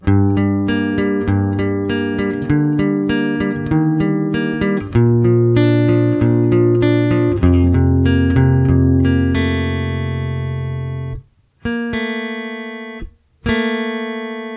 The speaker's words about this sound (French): Et ce détail, il est dans le riff principal de l'introduction. Dans ce riff-là, il y a une dissonance grâce à une corde à vide, et ça en radio, c'est quasiment impossible.